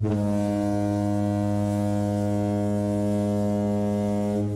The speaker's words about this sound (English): All right, hitting that spoiler horn now.